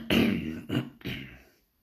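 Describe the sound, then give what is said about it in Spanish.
A fairly loud throat clearing in three rough, rasping bursts within about a second and a half, the last one longest, followed by a brief silence, as a leader clears his throat before starting to speak to a gathering of animals. “Cuando el comandante vio que todos se habían puesto cómodos y esperaban con atención, carraspeó y empezó a hablar.”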